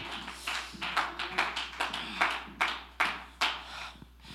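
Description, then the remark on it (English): An audience claps their hands to God in a steady rhythm, the sharp claps landing roughly twice a second, starting as a dense patter and then settling into crisp, distinct beats. No one speaks. “Let's clap our hands to Him one more time.”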